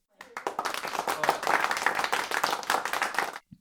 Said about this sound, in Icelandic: Getur við klappa fyrir því?